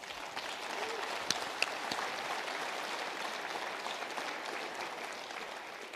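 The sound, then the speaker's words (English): A crowd claps steadily for several seconds to thank two people, a dense, sustained wash of applause with a couple of sharper individual claps standing out near the start. “I just want to say thanks to Justin and Tara because we're all here because of them. So can we give them a little?”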